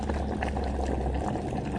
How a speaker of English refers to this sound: With his cry and plea, my brother was thrown into a pot of boiling liquid, and I could hear it boiling.